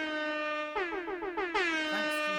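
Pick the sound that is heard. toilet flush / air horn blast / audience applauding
air horn blast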